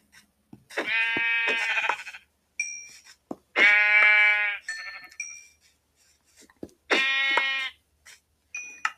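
Three loud sheep bleats in a video game, with wavering, harmonic tones, spaced a couple of seconds apart, interspersed with brief high electronic blips; no one speaks.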